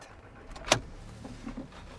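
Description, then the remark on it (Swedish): A dual-fuel gas and petrol car running on biogas gives a quiet, steady low hum heard from inside while driving, with one sharp click partway through and a couple of soft thuds afterward; no one speaks. “Den kör går på gas nu.”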